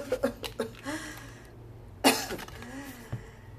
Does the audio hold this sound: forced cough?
yes